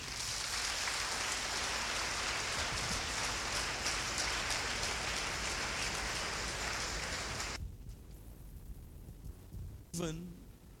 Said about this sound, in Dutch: Geloven en vergeven gaan hand in hand. Amen. Laten we de Heer een applaus geven.